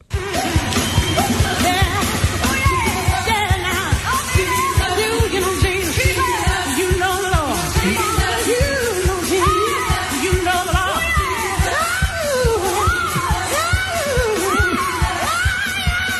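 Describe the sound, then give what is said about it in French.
Two women belt out a gospel duet, their powerful voices swooping through high, sustained runs over a steady, pulsing accompaniment, loud from start to finish. “c'est gospel au bout”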